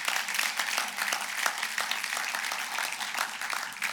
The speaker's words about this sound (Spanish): Un aplauso al Señor.